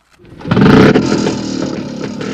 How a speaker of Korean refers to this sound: 그런데, 그때였습니다. 제 옆에, 웬 오토바이 한 대가 섰습니다.